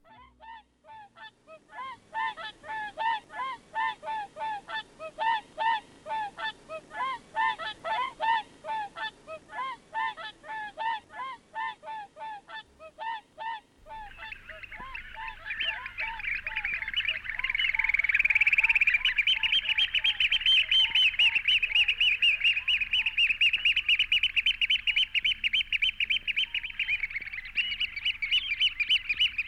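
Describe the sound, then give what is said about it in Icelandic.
Whooper swans give a steady series of bugling honks in spring, then oystercatchers take over with loud, shrill, rapid piping that runs continuously to the end. No voices are heard. “vorbúðarnir, áltinn og tjaldurinn byrjaðar að láta heyra í sér og minn okkur á að framundan eru bjartari tímar.”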